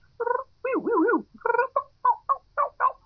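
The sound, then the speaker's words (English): A human voice, using a natural voice, imitates turkeys feeding: a few nasal clucks, a rolling, warbling purr, then a quick run of short, evenly spaced clucks with no other sounds. “But yeah, those are sounds that turkeys make when they're feeding.”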